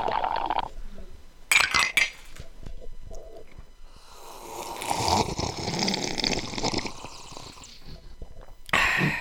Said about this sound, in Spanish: No hay nada como un buen sorbido del Club de Sorbedores. Un saludo para para El primer sorbido del año, mae. Primer sorbido del año.